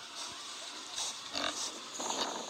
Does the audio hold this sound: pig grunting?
yes